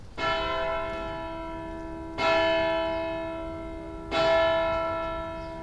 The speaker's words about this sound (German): Gehört haben wir eben die Glocken der Kastorkirche